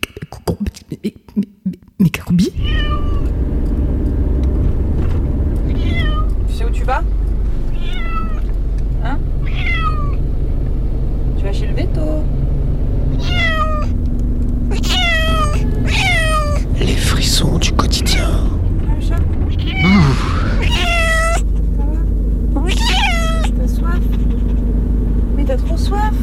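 A cat meows over and over, a long run of insistent, high-pitched cries with short gaps between them, set against a steady low rumble like a running engine.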